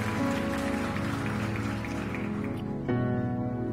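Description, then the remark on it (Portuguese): Drinking water pours in a steady, splashy stream for a few seconds, loud and continuous, with a brief change in the flow near the end. No one speaks. “Vou tomar dessa água aqui.”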